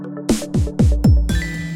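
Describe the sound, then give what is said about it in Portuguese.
A phone message chime rings out clearly: four quick bright notes in a rapid run, then a sustained shimmering tone that lingers to the end, with no voices. It signals a text message arriving from a friend. “A amiga manda mensagem: Tá chegando?”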